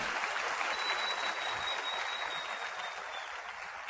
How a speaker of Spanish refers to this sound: Esta convención, muchachos, tiene que ser la convención más chiquita que hayamos tenido en Guadalajara. ¿Qué les parece eso? Vamos a dar un aplauso para eso, muchachos, para ponernos las pilas y en la próxima convención